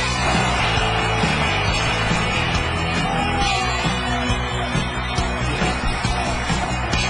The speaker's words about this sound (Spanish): Los aplausos son completamente suyos.